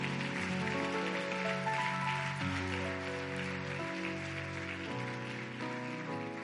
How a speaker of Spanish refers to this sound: Alguien le puede dar un fuerte aplauso al Señor.